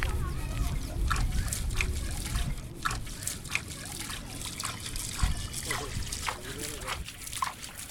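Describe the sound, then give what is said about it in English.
Water sloshes and splashes close by as two men sitting in the river near a bridge in the capital swirl river sand in two metal plates, searching for silver particles, with repeated short scraping bursts in a steady, uneven rhythm and faint voices in the background. “Close by, two men are sitting in the water with two metal plates in their hands.”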